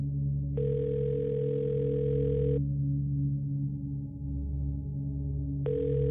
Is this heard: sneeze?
no